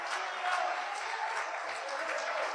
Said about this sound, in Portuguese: Só os salvos aí, levante a mão, glorificando e aplaudindo o nome do Senhor. Aleluia!